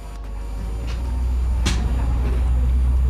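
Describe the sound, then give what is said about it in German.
Steady low engine rumble fills the inside of a moving bus, with a constant droning hum, faint rattles and a brief sharp clack partway through; no one speaks. “Ich bin im Bus”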